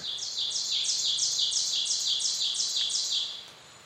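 A bird sings a sharp, high-pitched phrase of about a dozen quick repeated chirps in an even rhythm, clear, then stops, leaving faint background hiss.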